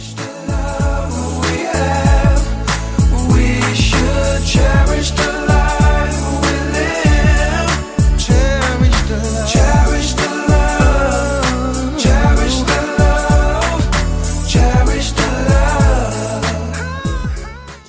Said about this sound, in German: Auf der 4 ist dann ein Song, den müssen wir auch wieder hören.